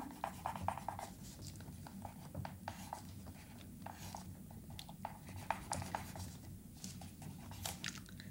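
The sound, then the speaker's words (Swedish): A pen scratching across paper in quick, uneven strokes, with soft rustling and short bursts of scribbling over a low background hum. “Och så kan du skriva på, vad blir det nu?”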